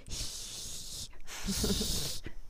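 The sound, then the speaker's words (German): A person imitates a small cat's hiss with two breathy, airy bursts, the first about a second long and the second slightly longer after a brief pause, fairly soft. “Fauchen ist wirklich so. Sie macht dann wirklich nur so.”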